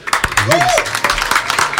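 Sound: audience applause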